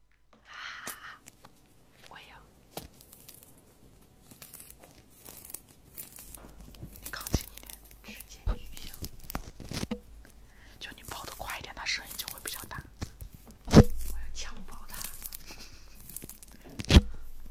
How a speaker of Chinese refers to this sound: 哎，他们说剥橘子会有那个 ASMR， 什么意思？ 我我对着话筒剥，然后就会有那个很爽的声音。